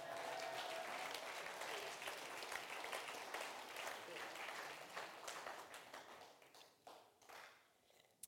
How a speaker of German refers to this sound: Ihr dürft gerne klatschen. Auf jeden Fall.